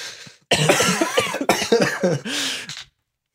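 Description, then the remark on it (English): A loud fit of coughing: several harsh, raspy coughs in quick succession over about two seconds, with a rough throat-clearing quality and no speech. “I'll take the opportunity to cough as well then.”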